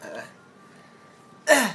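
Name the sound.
coughing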